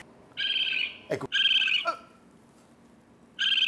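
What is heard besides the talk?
raccoon call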